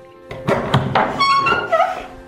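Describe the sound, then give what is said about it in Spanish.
Several firm knocks on a door, struck in a quick uneven series of about four or five dull thuds, followed by a faint ringing tonal sound as the knocking fades. “¿Quién será? A esta hora, golpeando la puerta.”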